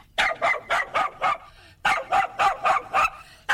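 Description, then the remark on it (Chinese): A hound dog barks in two quick bursts of about five sharp, evenly spaced barks each, with a brief pause between them, as it runs past a chicken coop. The barks are loud and heard on their own. “大猎狗呢，一阵风似的从鸡舍旁飞奔而过”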